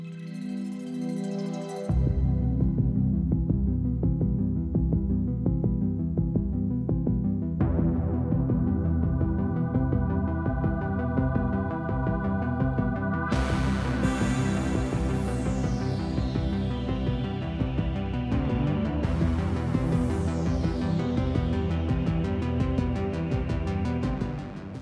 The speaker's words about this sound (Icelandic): Þarna mátti heyra hljóðstef sem mörg fyrir okkar hafa heyrt áður við áhorfa á vinsæla Netflix sjónvastætti. Hvaða þættir eru þetta? Stranger Things.